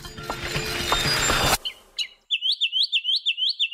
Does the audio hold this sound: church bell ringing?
no